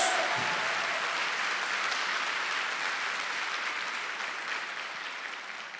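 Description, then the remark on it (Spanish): A church audience breaks into sustained applause in praise of God, a dense, steady wash of many hands clapping that holds loud for several seconds and slowly tapers slightly toward the end, with no talking over it. “Dele fuerte ese aplauso al que vive por los siglos de los siglos.”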